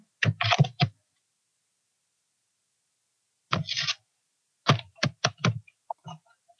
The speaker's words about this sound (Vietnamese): Uh, nghe giống như là chị đang gõ phiếu ấy có phải không ta nó hơi ồn đúng không không chị không gõ phím mà chị ờ, đụng như cái laptop của chị á à yeah. Dạ không vô không có phím mới nó không có phím mà mình phím bị hư gỡ ra luôn